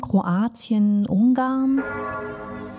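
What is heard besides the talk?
clock tower bells ringing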